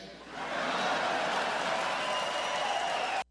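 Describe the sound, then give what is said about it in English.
A crowd cheers and reacts with a steady, dense roar of voices and some clapping that swells quickly and holds loud for about three seconds before cutting off abruptly. “Listen to the crowd.”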